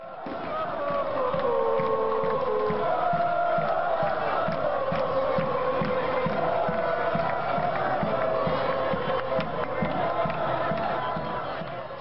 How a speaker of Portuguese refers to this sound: Mas calma, não podemos esquecer da campeã da edição, a Itália, e com sua torcida efervescente gritando a cada minuto.